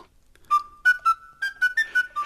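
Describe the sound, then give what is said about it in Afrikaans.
A tin whistle plays a short, bright melody of about eight articulated notes that climb gradually in pitch, clear, with no voices. “"Ek kan julle help," sê hy en begin hom op sy fluitjie te speel.”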